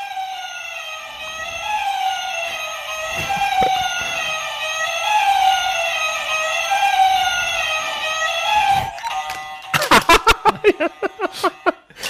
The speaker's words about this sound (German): Äh, ja, es war halt so, man hört dieses tolle Geräusch, das hört dann irgendwann auf und geht dann in diese Hupe über und in dem Moment muss man halt auf den Drücker